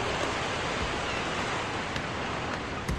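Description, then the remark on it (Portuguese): A steady, full wash of sea surf noise, like waves rolling onto a shore, with a few faint crackling ticks and no distinct individual swells over three seconds. “O som das ondas, o cheiro da água salgada e o azul escuro misturado ao azul claro do céu.”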